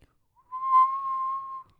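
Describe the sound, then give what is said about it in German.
A person whistles a single sustained tone, steady in pitch, held for about a second with a slight waver before cutting off; no talking over it. “Ja, okay, reicht das mit dem Pfeifen?”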